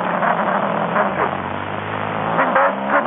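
A car engine runs steadily, a low continuous rumble with slight rises in revs and road noise. Nobody speaks.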